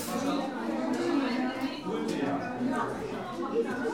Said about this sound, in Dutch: Nou, de warmoes is vandaag dus ook het decor van een charmante zaden- en plantenruilmarkt. Je hoort dat op de achtergrond. En die wordt georganiseerd door VELD, afdeling Nijmegen en omstreken van deze vereniging.